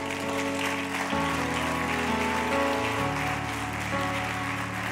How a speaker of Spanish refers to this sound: De un aplauso fuerte al Señor.